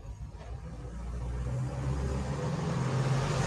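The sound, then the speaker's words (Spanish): A heavy truck rumbles past, its low engine drone swelling steadily louder over a few seconds with a broad, gritty road noise and no voices. “Eso es un camión.”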